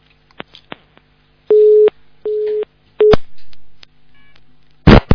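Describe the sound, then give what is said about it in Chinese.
A telephone busy tone: three evenly spaced, steady mid-pitched beeps, preceded by a few faint line clicks and ending in a sudden burst of crackling noise. “哎呀，电话机挂挂好，弄弄好。”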